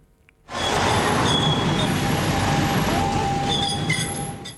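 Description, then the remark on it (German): A tram grinds around a curve in the municipality of Tüfe, Appenzell Ausserrhoden, with loud, sustained metallic squealing from its wheels over a broad rumbling roar, continuous after a brief quiet start. “Quietschen von einem Tram, wo um Kurven fährt.”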